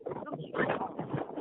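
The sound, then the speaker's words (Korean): Strong wind roars through mountain trees, heard as a continuous, rushing, rumbling noise over a phone line, swelling and easing without pause across the whole moment. “뭐, 음. 산, 나무가 막, 바람 소리가, 어, 막,”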